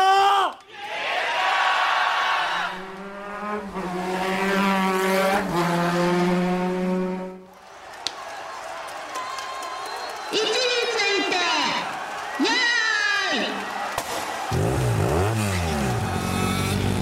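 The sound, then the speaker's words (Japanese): A voice imitates motorcycle engines revving in a bike race at a sports day, with loud, buzzing rising and falling pitch sweeps that repeat for several seconds, like bikes racing past. “運動会でバイクレースしてるっていうこと それで近所の家に突っ込んじゃって理解できないおじさんに怒られてるっていう”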